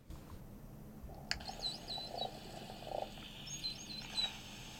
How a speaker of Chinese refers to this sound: 下雨的声音来了，这就是下雨的声音。 对，就是在海里面听到下雨的声音。可是这个要在很比较浅的地方才听得到。如果像我们一般工作的那个深度，如果这个超过大概。超过在五米哈，嗯，五米大概下面都听不到声音。